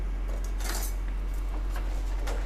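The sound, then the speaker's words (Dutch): Metallic clinking and rattling as another pair of kitchen scissors is picked out from among utensils, a few light irregular clanks over a low steady hum, with no talking. “Ik pak een andere schaar.”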